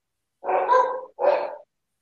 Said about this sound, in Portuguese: Eu, não, esse latido aí foi quase que uma, uma dublagem aqui para mim, né?